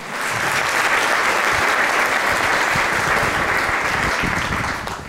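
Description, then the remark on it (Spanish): An audience breaks into sustained applause for God during a sermon, a dense, steady roar of many hands clapping at full volume for about five seconds before tapering slightly at the end. “Le damos un aplauso a Dios por eso.”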